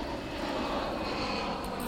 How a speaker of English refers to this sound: But airplane